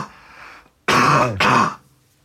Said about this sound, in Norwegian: skal bare hoste litt. Nå kommer det.